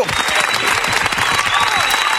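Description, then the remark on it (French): A brief burst of dense, steady applause, many hands clapping loudly, sustained for about two seconds before cutting off abruptly. “On applaudit, bravo”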